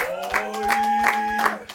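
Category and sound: crowd, applause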